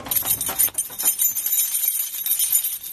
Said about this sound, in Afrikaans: Dit is hoe die sleutels klink as dit nou buite die egolose kamer is. Ja, soos wat ons in die vertrek inbeweeg, dan begin dit al hoe dooier klinkies, geen weerkaatsings nie.